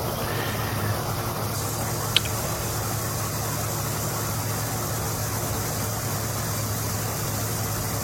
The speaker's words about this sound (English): So this is a nitro. This is a top fueler, fueler Martinez car.